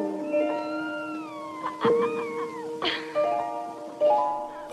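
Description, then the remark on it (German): A kitten meows repeatedly in thin, wavering cries, several in a row over a few seconds, fairly clear against a soft steady background tone, in a black-and-white film scene where a woman stands in front of a fountain with the kitten on her head. “hat dieses Kätzchen auf dem Kopf, wenn diese Szene beginnt”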